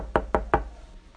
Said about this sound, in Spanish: Fue a Israel a una conferencia a un hotel. De repente le tocan en el cuarto.